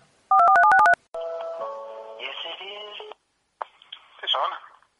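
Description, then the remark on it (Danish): A quick burst of phone keypad tones dials a number to call a competition winner, then a steady electronic ringing tone follows before a brief pause and some faint clicks and a voice-like sound at the end. “og vi har fundet en vinder, og jeg har ringet til vinderen.”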